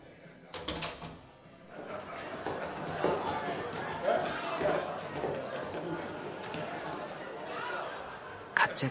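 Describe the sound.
A noisy jumble of three or four men's voices talking at once as they come in at evening dinner time, with a sharp clack near the start and another right at the end.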